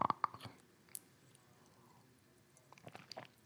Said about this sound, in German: Mama muss eben einen Schluck Wasser trinken.